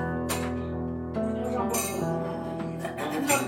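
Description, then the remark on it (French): A few bright clinks of glasses touching in a toast ring out at irregular moments over a steady, humming background of sustained tones and murmuring voices. “Tu vas prendre un petit fond pour trinquer.”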